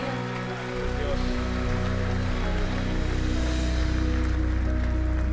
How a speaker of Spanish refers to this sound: Si le amas al Señor, dale ese aplauso que Él merece.